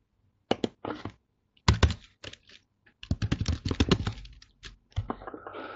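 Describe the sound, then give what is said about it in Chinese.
Typing on a computer keyboard as the speaker corrects a typing mistake, changing a word to "收入" (income): irregular bursts of crisp keystrokes, some in quick runs and others spaced apart, with short pauses between clusters and no one talking. “啊，这个是收入，对不起啊，我刚打字打错了，收入，我把它改一下，稍等一下。”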